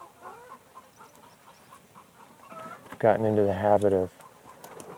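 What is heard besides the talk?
chicken clucking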